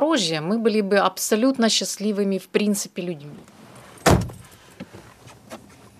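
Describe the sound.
A voice speaks for a few seconds, then a single solid car door thumps shut, followed by faint shuffling and rustling as people settle into a car in a container village in Zaporizhzhia, about to drive toward the city centre.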